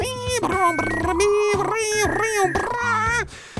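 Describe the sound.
A person vocally imitates a dial-up modem connecting, producing a string of warbling, pitch-sliding squeals and chirps in bursts, fairly loud and continuous over several seconds.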